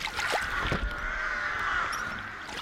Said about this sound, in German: Im Hintergrund hören wir die krächzenden Kolkraben, die sich auf einem Baum niedergelassen haben.